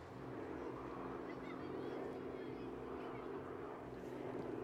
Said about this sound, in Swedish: Och flygplan.